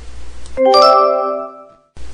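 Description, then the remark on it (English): A doorbell rings once, a bright chime with layered ringing overtones that sustain and fade over about a second. No one speaks, and only a low hiss sits before and after it. “No one makes cookies like Grandma, said Mom as the doorbell rang.”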